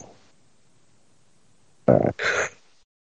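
A yawn comes out as a throaty vocal noise in two quick, loud bursts, a rough guttural sound with a brief break between them, after a stretch of near silence.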